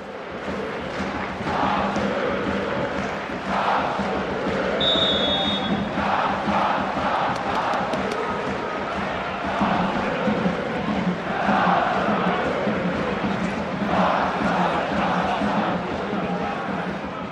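A large OB football crowd sings a rhythmic tribute chant in unison for club icon Lars Sø after 8 minutes and 17 seconds of the match, swelling in loud repeated surges over a constant roar of voices, with occasional thuds from the stands.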